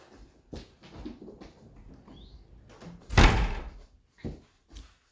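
A garden door is pulled shut with a solid, loud thud about midway through, preceded by softer rustling, shuffling and a faint squeak, with a couple of lighter knocks afterward.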